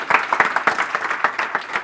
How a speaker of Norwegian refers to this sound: Gjerne klappe litt, folkens. Det er bra.